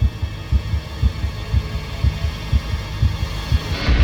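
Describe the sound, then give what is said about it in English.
A heavy, pounding heartbeat thumps at a steady, fairly quick pace, about eight deep double beats over a low droning hum, prominent with no voices. “I spin around, heart pounding, staring deep into the tangle of branches.”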